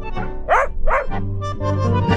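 A dog barks twice in quick succession, fairly loud, short sharp yaps over a steady low background hum with no talking.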